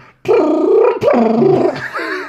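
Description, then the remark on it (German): A voice imitates the exhaust note of an R32 sports car with a series of loud, buzzing revving tones that rise and fall in pitch, ending in a higher, warbling rev. “so eine schöne R32-Trompete hört.”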